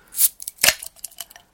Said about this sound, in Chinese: 所以我们先开一个可乐瓶，起好，